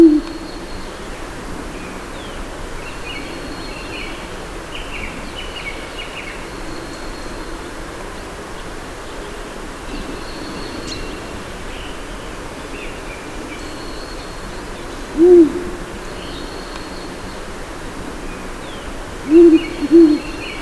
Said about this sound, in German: Ja, und hören Sie ruhig noch ein bisschen Karpaten-Waldgeräuschen zu.